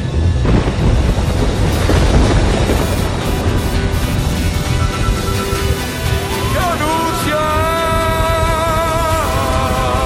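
Loud, deep rumbling thunder rolls through the whole stretch, strongest near the start, while sustained tonal sounds, like music or a drawn-out voice, rise in the second half.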